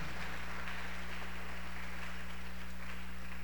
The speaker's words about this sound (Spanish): Le va a dar el aplauso de eso al Señor esta tarde.